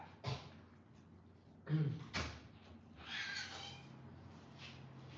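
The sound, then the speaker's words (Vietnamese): A door being opened for a son returning from swimming: a short click, then a louder rattle and thump of the latch and door, followed by some rustling movement; otherwise quiet. “Thế tôi mở cửa cho con trai tôi cái đã nhé rồi sau đó thì à, quay lại.”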